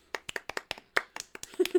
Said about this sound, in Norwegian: Round of applause.